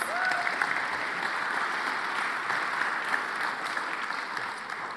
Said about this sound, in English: If you want to give him a little round of applause.